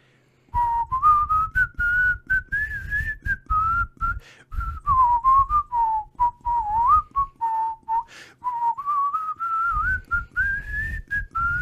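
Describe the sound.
A person whistles a bouncy, continuous melody of the Pata Kakkonen TV theme tune, clear, with short breaths and soft rustling between phrases, lasting about eleven seconds with no talking.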